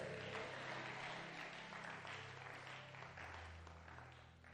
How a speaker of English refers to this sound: If you are here with me, clap your hands and say a big amen.